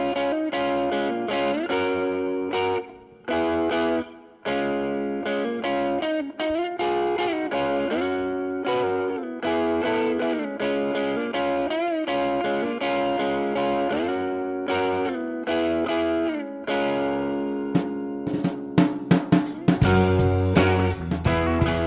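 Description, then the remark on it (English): Driving instrumental music from a band, with heavily effected, distorted guitar-like tones and a steady beat, building in the final seconds as sharp percussive hits and a deeper low end kick in. No voices. “music you heard on the way in is from our friends at ….”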